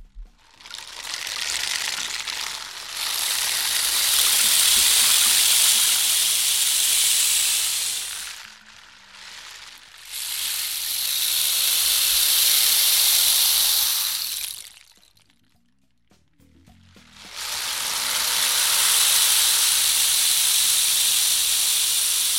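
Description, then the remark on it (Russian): Rushing, wave-like hiss that swells and recedes in three long, loud surges separated by brief lulls, with no voices. “Мне напоминает это волны моря.”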